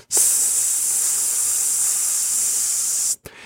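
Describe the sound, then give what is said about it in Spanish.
A voice imitates the white-noise hiss of a low-cost audio console's saturating microphone input: a long, steady 'shhh' lasting about three seconds, loud and unbroken, then cutting off sharply. “Cuando yo la conecté me encontré con la sorpresa de que tenía un sonido blanco, como un...”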